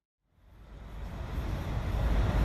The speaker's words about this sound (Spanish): Este es el sonido de los autobuses aparcados al lado del mall. Esta es una zona donde hay museos, instituciones públicas